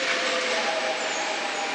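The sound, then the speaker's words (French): A double-decker RER A commuter train pulls into a platform, its steady, loud rolling rumble carrying a thin whine throughout, with no voices heard. “Le RRA arrive sur le quai.”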